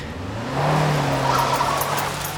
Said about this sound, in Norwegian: Den lille Fiaten freser opp en gammel kjerrevei, og slik kommer de seg inn på anleggsveien lengre oppe.